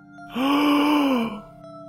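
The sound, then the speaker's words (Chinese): One long, drawn-out yawn from a single voice, about a second of breathy, moaning vocal tone that swells, holds with a slight pitch rise, then sinks and trails off, with no talking. “出发之前，你会发出一个信号，用手沿着嘴打一个大大的哈欠。”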